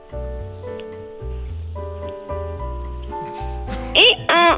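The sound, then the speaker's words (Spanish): Near the end, a person asked to make the noise of a donkey does a loud donkey-bray imitation: two strained, wavering cries in quick succession, rising over a steady musical background. “A ver, ¿puedes hacer el ruido de un burro?”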